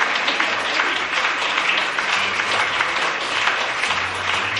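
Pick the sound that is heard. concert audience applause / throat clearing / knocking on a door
concert audience applause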